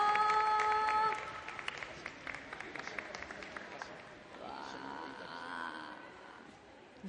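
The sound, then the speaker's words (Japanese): A brief sustained tone fades into steady audience applause for the students of Shukutoku University's Department of Expression, a dense crackle of many hands clapping at even loudness, with a voice briefly rising over the clapping partway through. “淑徳大学表現学科の学生の皆さんに大きな拍手をどうもありがとうございました。”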